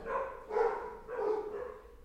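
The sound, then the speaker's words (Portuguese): Several dogs bark, three drawn-out, slightly howling barks in quick succession at moderate volume, with no one talking. “Ó, o cachorrado.”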